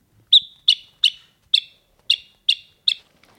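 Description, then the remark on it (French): A house sparrow, a passerine bird of about 18 cm with a 25 cm wingspan, chirps seven times in a steady, evenly spaced series, each short bright note clear and fairly loud, with no other sounds or voices. “Le, le moineau, il pépit.”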